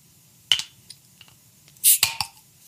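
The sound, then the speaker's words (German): The cap of a non-alcoholic beer bottle, a crown cap showing a lamb on a barrel, is levered off with a lighter: a sharp metallic click, a few faint taps, then a brief hissing pop and two more clinks. No one speaks. “Ich mach's mit dem Feuerzeug, mal schauen, was besser ist.”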